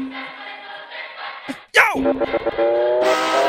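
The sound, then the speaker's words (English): A car engine drones as the car comes up the road, with a sharp burst of noise midway, then the motor's pitch climbs steadily as it draws nearer and grows louder. Voices may be faintly mixed in. “This is a real car coming up the road there.”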